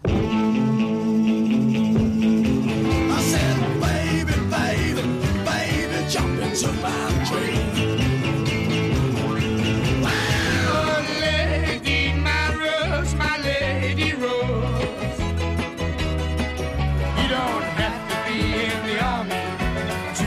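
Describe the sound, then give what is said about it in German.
A loud, continuous medley of full-band pop music with steady rhythm and rich harmonies, playing alone with no talking over it for about twenty seconds. “es gibt tatsächlich ein Medley von … und auch noch ein bisschen mehr”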